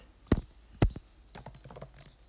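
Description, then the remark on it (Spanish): Fingers tap an iPad screen: two firm, low thumps, then a run of lighter, quicker taps and clicks, like typing on glass, with otherwise quiet surroundings. “¿Qué tanto se escucha si muevo, si toco el iPad?”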